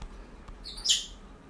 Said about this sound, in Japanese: 時折、えー、インコの鳴き声が聞こえますが、聞こえた人はラッキーです。んなんでかはわからないですけど。